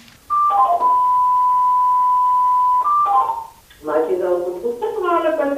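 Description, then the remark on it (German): An electronic alert tone from a newly installed home emergency call unit, confirming that an emergency call has been triggered during a test call: a quick falling chirp leading into a long steady beep, then the chirp repeats, followed by a person starting to talk. “Piepsen, ja, durch dieses Geräusch hier, dass der Notruf ausgelöst okay. ist.”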